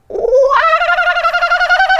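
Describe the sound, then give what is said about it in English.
A person imitates the laughing call of a kookaburra, an Australian bird: a loud, rising hoot breaking into a rapid, pulsing cackle that continues steadily for about two seconds. “That's what a kookaburra sounds like.”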